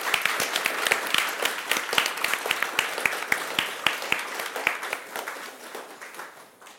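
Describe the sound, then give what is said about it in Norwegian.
An audience applauds warmly to welcome a performer to the stage for a poetry reading, many hands clapping in a dense, steady patter that holds for several seconds before gradually thinning and fading toward the end. “varmt velkommen til scenen med en applaus.”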